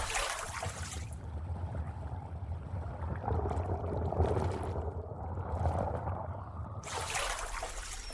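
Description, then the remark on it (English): A person wading in water splashes briefly, then dives under the water, giving way to a muffled, low, rumbling underwater wash; splashing returns at the end. No one speaks. “I splashed a bit then dove under the water.”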